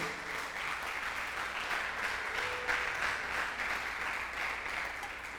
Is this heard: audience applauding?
yes